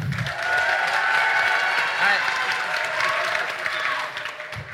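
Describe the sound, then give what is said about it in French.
A large audience bursts into sustained applause and cheering for Anto in a battle over who is the sexiest, loud and dense throughout, with shouts and whoops rising over the clapping. “À trois, vous faites du bruit pour Anto.”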